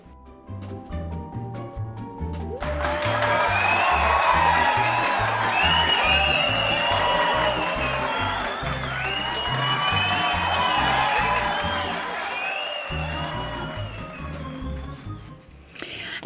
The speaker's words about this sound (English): the sound of our cheering fans means that it's time for listener comments.